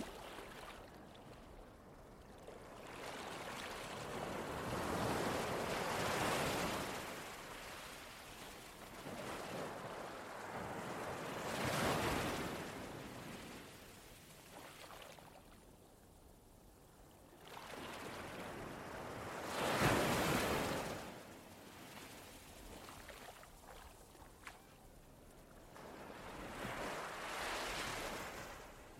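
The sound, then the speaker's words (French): Sea waves wash onto a beach in slow, rolling surges, each swelling to a loud hiss and fading back, roughly every six to eight seconds, with no voices. “Vous prenez cette pause face à la mer, à l'ombre d'un joli arbre, et regardez ce paysage magnifique que la nature vous offre.”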